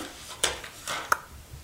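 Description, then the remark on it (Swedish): A few short clicks and light scraping as a small jar of highly concentrated vitamin C serum with a small dropper pipette is twisted open with some difficulty, with a sharp tick partway through and soft rustling between, no talking. “Så där man liksom får en liten pipett med burken. Ja, precis. Nu var det lite svårt att öppna”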